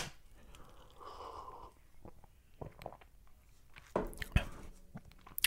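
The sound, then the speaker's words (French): A quiet sip of coffee: a soft slurping draw, then faint swallowing and small mouth sounds, with a couple of light clicks near the end. No one speaks. “Je vais prendre une petite gorgée de café.”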